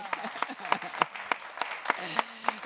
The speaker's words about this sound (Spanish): Y, lo aplaudimos, lo celebramos.